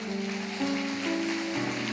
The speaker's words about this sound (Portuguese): E eu quero parabenizar, amém? Vamos aplaudir o Senhor pela vida deles, irmãos.